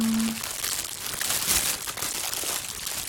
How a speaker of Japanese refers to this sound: 今皆さんにも袋のガサガサしている音が聞こえますでしょうかね